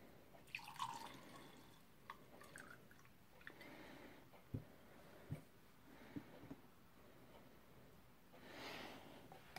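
Vodka is poured into a glass, a soft trickle broken by several small drips and splashes, with a brief rush of pouring near the end. No one speaks.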